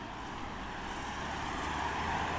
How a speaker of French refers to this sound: Mais là où je suis les voitures elles vont à une certaine vitesse quand même.